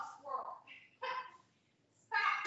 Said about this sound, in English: My freaking dog is going crazy because he saw